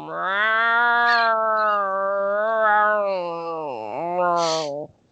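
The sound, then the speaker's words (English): A person imitates a neighborhood tomcat's mating yowl as it called after a female cat: one long, loud, wavering nasal wail held for about five seconds, dipping briefly near the end before cutting off. “could you please repeat the sec, the weird sex sound that this uh, this weirdo cat from the neighborhood uh, did when he was calling after your female cat?”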